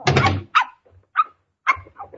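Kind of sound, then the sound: animal, dog barking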